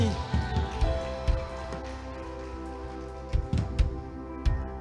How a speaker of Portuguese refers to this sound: Vamos colocar de pé. Aplauda Jesus. Amém.